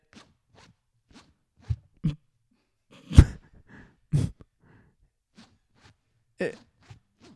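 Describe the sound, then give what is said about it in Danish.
A clothing zipper being worked in short, irregular bursts: several quick rasping pulls and clicks, with quiet pauses between them and no talking. “Er det din lynlås?”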